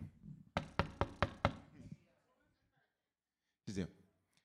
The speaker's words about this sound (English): And when I knock, watch this. I'm expecting somebody to open.